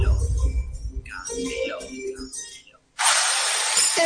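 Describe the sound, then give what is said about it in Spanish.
Home renovation noise: a jumble of clanks and knocks for a few seconds, then after a brief pause a loud, harsh power tool starts up and whines steadily to the end. “Este es el ruido de las reformas.”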